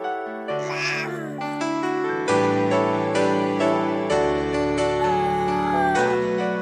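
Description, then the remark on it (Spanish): A baby cries and vocalizes in short, wavering wails over a steady bed of sustained musical tones, with a sharper cry near the start and softer babbling later. “Bueno, pues esas vocecitas, esos llantos, esa cambiadera de pañales y tantas cosas que conlleva el tener un bebé”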